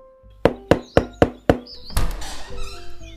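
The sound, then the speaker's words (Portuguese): Five sharp knocks rap on the wooden door of a house in a small inland town, in a steady, evenly spaced rhythm, followed by a brief rustling clatter, with faint chirping in the background. “Em visita a tal cidade, Fui buscar onde morava o cidadão e, lá chegando, bati na porta.”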